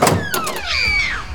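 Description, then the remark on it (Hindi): A door creaks open with a long, rising-and-falling squeal from its hinges, preceded by a faint click of the latch, with no voices: the door of a warden's room in a girls' hostel being opened. “ये बुदबुदाते हुए उसने वार्डन के कमरे में पहुंचकर जैसे ही रूम का दरवाज़ा खोला”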